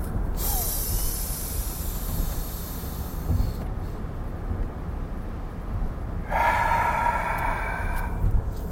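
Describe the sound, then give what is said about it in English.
During a deep-breathing break, a long, hissing inhale fills the first few seconds, then a quieter pause while the breath is held at the top, followed by a noisy, rushing exhale. “You take a really deep breath, inhale, and then hold it at the top.”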